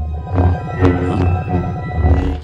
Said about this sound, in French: Comme dans Toy Story, où ce chant magnétique sonne étrangement comme le halo d'un sabre.